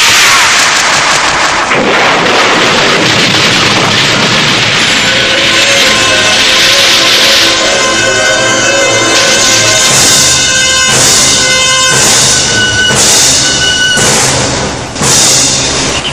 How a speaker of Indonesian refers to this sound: Dalam sekali pukulan dan hampasan tangan kanan dan kiri Ki Wulung maka sebongkah batu besar hancur berantakan menjadi debu.